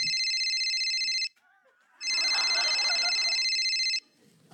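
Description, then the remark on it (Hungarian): A phone ringtone rings loudly in two sustained bursts with a short gap between them, bright and electronic, with faint background murmur during the second ring. “Ne haragudj, ne haragudj, ez fontos, föl kell vennem.”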